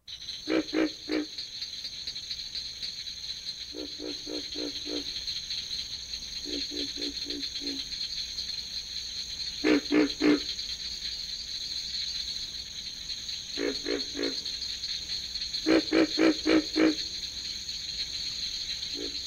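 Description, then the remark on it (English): A pig frog's mating call: short bursts of low, rough grunts in clusters of three to five, repeating every few seconds over a steady, high-pitched drone of crickets and insects at night. “I'm going to include a link that he sent me of the mating call of the pig frog right now.”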